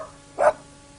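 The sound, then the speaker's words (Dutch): A spotted dog lets out one short, sharp bark against a quiet background, with no voices around it. “Daardoor kwam zijn oom tot de conclusie dat Job zo'n bijzondere hond toch wel waard was.”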